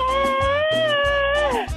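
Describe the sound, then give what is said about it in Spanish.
A voice imitates a kitten's meow in one long, high, drawn-out cry that bends downward at the end, loud, over faint low rhythmic thumps. “Tú no eres felino, tú eres una gatita.”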